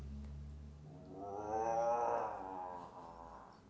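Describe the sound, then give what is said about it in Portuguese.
A voice imitates the loud stomach growl of a hungry wolf with an empty belly: one drawn-out, rumbling groan that swells in the middle and fades away, with no other sounds. “Sua barriga estava vazia e ele começou a roncar alto, mais ou menos assim.”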